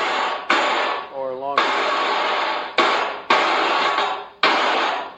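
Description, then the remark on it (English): An electronic fake handclap, from a faulty device triggered by a microphone on a snare drum to make the backbeat sound bigger, fires in a series of loud, harsh bursts of hissing noise. Each one hits sharply and then sustains. A man briefly speaks in a short gap between them. “What the claptrap is fake clapping.”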